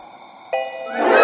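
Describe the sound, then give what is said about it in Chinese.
A single bright elevator arrival chime rings out midway as the elevator reaches the nineteenth floor. Its clear tone sustains over a low background hum while a soft rushing noise swells toward the end. “随着一声清脆的铃声响起，我抬头一看，十九楼已经到了。”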